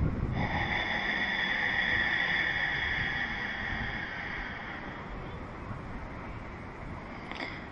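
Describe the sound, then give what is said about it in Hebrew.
A long, steady ujjayi breath in a breathing exercise, rasping as the windpipe is partly blocked in a narrowed throat, a soft oceanic hiss that holds for several seconds before fading slightly, with no talking. “בתרגול הזה אנחנו בעצם חוסמים קצת את קנה הנשימה, מה שגורם לחרחור הזה הקטן של הנשימה שלנו.”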